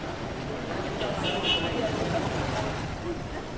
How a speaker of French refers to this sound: C'est mardi après-midi et le soleil tape fort sur Dakar, la capitale du Sénégal. Le marché en plein air de Sandaga est comme à son habitude, vibrant et bondé.